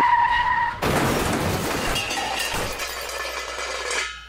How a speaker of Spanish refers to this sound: estaba grabando el podcast desde el auto y aparentemente lo chocaron de atrás.